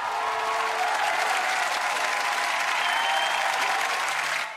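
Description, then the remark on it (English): An audience claps steadily for several seconds, a dense wash of many hands at a consistent loudness, fading slightly at the very end. “His surprising honesty seemed to woo the people more, and they clapped again.”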